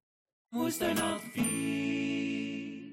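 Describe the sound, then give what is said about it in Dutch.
A phone notification chime for an incoming app message plays alone: a quick run of three or four bright, bell-like notes, then a held ringing tone that slowly fades. It sounds clear and fairly loud. “ondertussen dat ik met jou aan het praten ben, krijg ik een appje van José”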